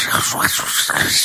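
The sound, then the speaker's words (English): A voice imitates the crackly hiss of an old radio without automatic tuning being tuned between stations, a steady, breathy static with wavering tones sliding through it, loud for about a second. “It, it, just sounds like this.”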